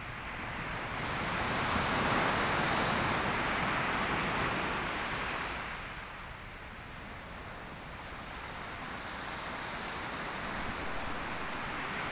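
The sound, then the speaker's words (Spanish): Ocean waves wash up on a sandy beach, a broad rushing surge that swells for several seconds, then eases into a softer hiss before building gently again. No voices are heard. “Disfruta el vaivén de las olas mientras tus pies se sumergen poco a poco entre la arena.”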